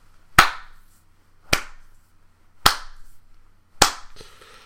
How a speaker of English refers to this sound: Bender does this sort of snarky, mean slow clap.